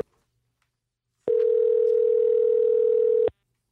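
A single ringback tone from an outgoing phone call to a listener in Illinois: one steady, even electronic hum lasting about two seconds, clear and fairly loud, then silence. No one speaks.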